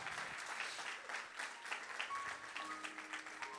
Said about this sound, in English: Come on, give the Lord a strong hand clap.